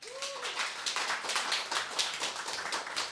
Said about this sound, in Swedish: Får vi en applåd för henne?